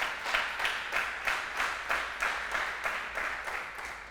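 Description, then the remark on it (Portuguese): A crowd claps for Jesus in a steady, rhythmic beat, bright bursts of noisy applause pulsing about three times a second for several seconds, with no voices over it. “Dá um aplauso a Jesus para animar.”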